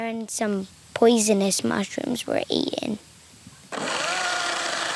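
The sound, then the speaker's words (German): A man speaks briefly, then a chainsaw roars to life on his own 12-hectare plot of land and runs steadily at high revs for the last seconds, a dense buzzing drone. “Vom Büro zur Motorsäge und auf die eigenen 12 Hektar Land.”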